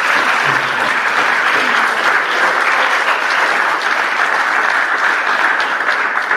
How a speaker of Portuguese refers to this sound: Dá um salvo de palmas a Deus, está muito quieto hoje, que não importa.